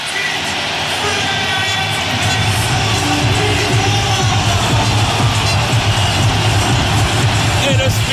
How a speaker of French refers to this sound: Voici les deux équipes qui entrent sur la pelouse. Écoutez l'ovation